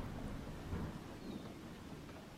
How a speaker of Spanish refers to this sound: De pronto, inesperadamente, principió a llover.